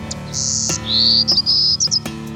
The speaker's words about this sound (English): Hear that? That's the golden cheeked warbler. The golden cheeked warbler is only in about 33 counties of Texas. It breeds nowhere else on the planet.